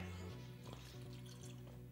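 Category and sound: food or drink, drinking water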